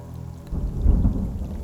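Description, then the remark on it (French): A thunderstorm: steady rain hisses while a deep rumble of thunder swells in about halfway through, rolling low and heavy and lingering to the end. No voices. “Puis arrive l'orage, goulu, dévastateur.”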